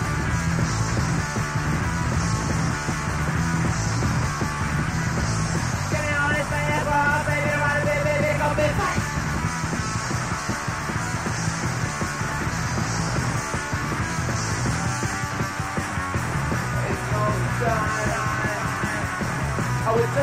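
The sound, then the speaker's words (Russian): A loud, dense hardcore punk song plays throughout, with shouted vocals over fast, distorted guitars and pounding drums at a constant, relentless volume. It is from the soundtrack of a Martin Scorsese film, playing over a scene in a club for punks with mohawks. “это хардкор-панк в фильмах Мартина Скорсезе.”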